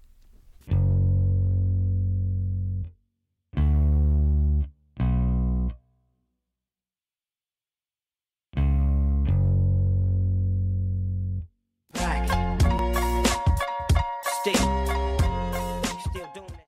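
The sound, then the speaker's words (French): Two song bass lines played one after the other: a fuzzy, distorted bass riff of a few long sustained notes separated by pauses, then a hip-hop bass line, a denser, punchier groove with a steady beat and busier instrumentation. “je vais vous mettre l'un après l'autre la ligne de base de … et … de … et …”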